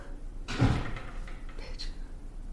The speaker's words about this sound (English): people really be slamming their doors.